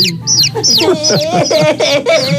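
A rapid series of high, chirpy chicken-like clucks repeats about six times in a quick, bouncy rhythm, fairly loud and close with no other sounds around them.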